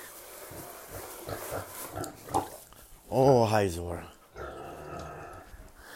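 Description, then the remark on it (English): A potbelly pig named Zora grunts in low rhythmic bursts, then lets out a louder, drawn-out oinking squeal, with a person speaking briefly around it, in a small barn on Blackbird Farm. “Oh, Zora, be quiet. Zora is our potbelly pig.”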